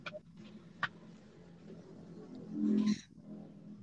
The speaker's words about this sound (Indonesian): Ada rombongan yeah. Iya, kucing lewat.